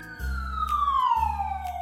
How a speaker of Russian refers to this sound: Вытащив из кармана очень быстро небольшую коробочку, он нажал красную кнопку. Весь магазин заполнила очень громкая пронзительная сирена.